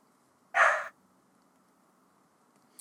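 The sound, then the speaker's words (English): A dog gives one short, sharp bark with nothing else around it, then it fades back to a quiet background hum. There's no talking. “You got a dog rocking in the background.”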